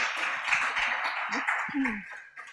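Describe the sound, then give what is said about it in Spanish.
An audience in a church claps steadily for two women called up as volunteers, a dense, continuous wash of applause, with a few voices calling out over it as it tapers slightly at the end. “Un aplauso, un aplauso.”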